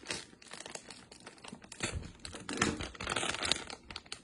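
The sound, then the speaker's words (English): Plastic being pulled apart, a steady run of dense crackling, crinkling and snapping clicks with small bursts of louder tearing, continuing for a few seconds with no voices. “So I'm trying to pull it apart.”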